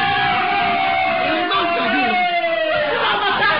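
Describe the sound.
A crowd screams in alarm as a man falls, a dense, loud wall of overlapping high-pitched voices that holds steady for the whole stretch, with some yells rising above the mass.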